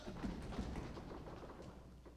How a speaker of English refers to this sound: So we're going to go through this lesson, but every time you hear the word run or ran or running, you're going to stomp your feet. Go ahead, practice.